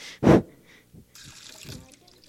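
A short, loud breathy burst, then a steady trickle of water pouring out of a container for about a second, with a few soft low knocks underneath.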